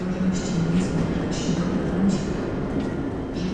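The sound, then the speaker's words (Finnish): A steady, continuous rumble of an Express Intercity train in motion in Poland, with a low droning hum and faint rattling swells throughout, at a moderate, even level. “Pociąg Express Intercity”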